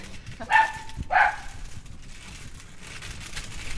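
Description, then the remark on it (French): A dog barks twice in quick succession, sharp, in a residential neighbourhood, followed by a low steady background hum with no voices. “Les chiens n'aiment pas les cannes blanches.”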